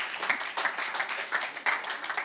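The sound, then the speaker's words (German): Audience applause for two people called to the front as Levites, a dense, steady wash of many hands clapping with a few sharper claps standing out. It runs without pause for the full couple of seconds, and no one speaks over it. “Komm, nochmal einen dicken Applaus.”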